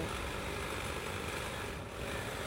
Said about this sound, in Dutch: Ik weet niet dat ze de haag aan het scheren zijn. Ik hoop dat dat niet heel stoort.